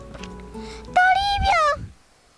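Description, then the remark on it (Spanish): A person imitates a cat's meow in one drawn-out, high-pitched vocal cry that rises and falls, loud and close. It is preceded by softer tonal sounds and fades into quiet. “¡Miau! Responde Toribio, que ahora es un hermoso gatito.”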